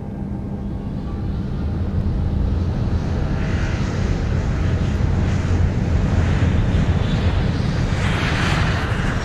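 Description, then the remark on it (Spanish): A steady, loud roar of an airplane taking off, with a dense low rumble and broad hissing noise that holds constant and swells slightly toward the end. No one speaks. “La torre de control nos ha dado permiso para despegar y damos inicio al viaje por los sonidos más importantes del continente.”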